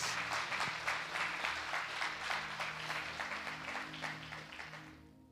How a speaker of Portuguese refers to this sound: Vamos aplaudir minha mãe.